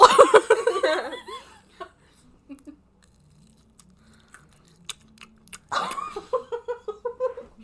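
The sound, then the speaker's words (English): Crunchy chewing done as ASMR right up against the microphone, a series of sharp, irregular crackles and bites in near silence, bracketed by bursts of laughter at the start and end. “oh, can I do a little crunch?”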